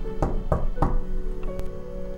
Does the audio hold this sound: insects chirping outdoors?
no